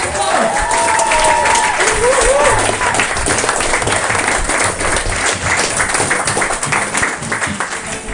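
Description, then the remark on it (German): Loud, sustained audience applause for comedian Maxi Schettenbauer at a comedy show, with dense, rapid clapping from many hands, a few whoops and cheers rising over it early on, continuing steadily throughout. “Äh, einen riesengroßen Applaus an Maxi Schettenbauer.”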